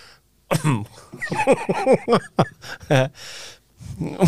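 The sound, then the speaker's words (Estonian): A person coughs and clears their throat repeatedly, fairly loud, with rough, irregular bursts and short raspy pauses between them. “köha, köha on”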